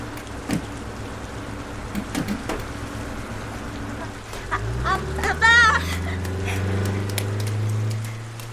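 Steady drizzling rain patters throughout late at night, around 10:40, as a bus rumbles in from around the midpoint, its low engine drone rising and holding, with a brief squeal like brakes as it pulls up at the stop.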